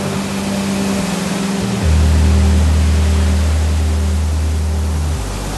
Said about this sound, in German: Rund um die Uhr holt dieser riesige Schwimmbagger den Bodenschatz ans Tageslicht. Eine Baggerschaufel trägt das Gewicht von 15 Kleinwagen. Pro Tag werden hier 5000 Tonnen Rohstoff aus der Erde geholt.